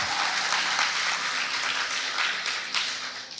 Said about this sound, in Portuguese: Vamos aplaudir Jesus pela vida deles, amém?